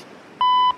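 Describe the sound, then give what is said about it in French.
A single steady electronic beep from an answering machine before a recorded message, clear and lasting about a third of a second, over faint room hiss. “Alors, vas-y, mets le répondeur, je t'écoute.”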